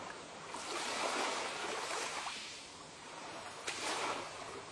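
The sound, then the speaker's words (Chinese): Ocean waves wash ashore in a steady, hissing roar that swells, fades briefly, then surges again, with a short sharp splash near the end. No voices are heard. “你静静的听着。一阵又一阵的海浪声”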